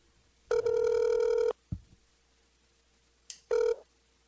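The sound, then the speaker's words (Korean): A telephone rings through an earpiece while a call to a journalist connects for an interview: one steady electronic tone about a second long, a brief click, then a shorter second ring after a pause. Fairly loud, with no talking. “그러면 전화 연결을 해보겠습니다.”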